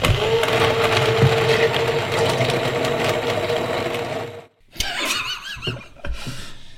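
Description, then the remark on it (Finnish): A hand electric mixer grinds loudly through ice cubes while making a drink with ice, its motor whining and rattling steadily for about four seconds, then cutting out briefly before sputtering and clattering in uneven bursts. “Käsi sähkövatkaimella on hieman vaikeuksia näiden jääpalojen jääpalojen kanssa.”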